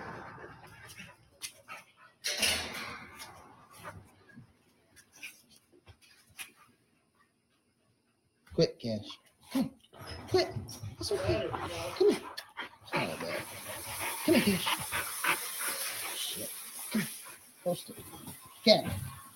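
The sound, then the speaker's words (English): Several dogs whimper, yip and bark in an echoey dog kennel at night, recorded in a phone video, fairly loud, with a brief quiet pause midway; people's voices talk over the noisy, restless commotion. “took another video on his phone. This time in their dog kennel Listen to how many voices you hear.”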